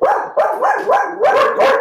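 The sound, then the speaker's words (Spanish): Dogs bark loudly at night, around 22:05, as neighbours pass by, in a rapid, continuous string of about six overlapping barks, with no pauses and no one speaking. “Perdón, alerta de perros. Tuve que cortar porque estuvieron varios minutos ladrando, parece que había un gato por el frente.”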